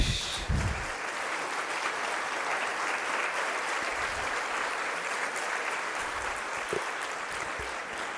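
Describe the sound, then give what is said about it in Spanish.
Sustained applause from a church audience for parents who give catechism classes, a dense, steady clatter of many hands clapping at once, even for several seconds without pause. “Aplauso, por favor.”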